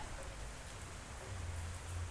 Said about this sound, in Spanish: no podemos parar la lluvia. No sé si la escuchas, está lloviendo